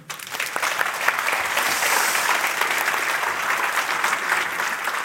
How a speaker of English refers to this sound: And then, uh, well, give her just an applause, eh?